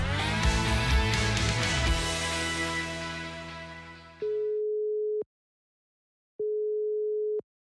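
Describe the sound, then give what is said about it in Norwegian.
Music fades out, then a telephone ringing tone sounds twice while placing a call: two steady, clear electronic tones about a second long each, separated by a short silence, with no talking. “Og nå syns jeg vi skal ringe, for hun er ukas oppturgjest.”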